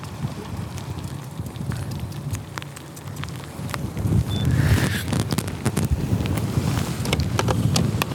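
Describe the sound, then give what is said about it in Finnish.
Steady outdoor wind roars and buffets against the microphone, swelling stronger partway through, with scattered small clicks and rattles mixed into the low rumble, while fishing from a boat with hooks whirling at the end of the line. No one speaks. “tää tämmönen tuuli ja, tuuli ja narun päässä viuhuvat koukut, niin se on aina vähän semmonen hazardiyhdistelmä.”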